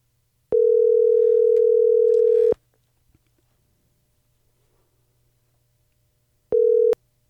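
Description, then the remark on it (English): A telephone ringing tone on the line of a call placed to a maker of fully electric off-road trailers: one steady electronic buzz lasting about two seconds, a long quiet pause, then a second ring that cuts off shortly after starting. No voices. “So we thought we'd have him on and uh, let's give him a call. All right, dial. You've got the phone.”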